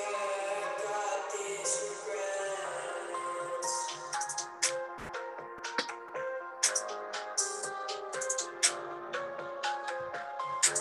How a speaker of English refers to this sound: Oh no, I did a freestyle rap to this. I made this beat. Can you hear it?